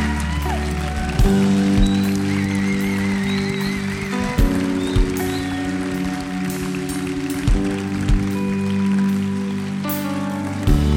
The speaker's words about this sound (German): Ja, das ist dein Applaus. Lass uns Gott mal einen Riesenapplaus geben.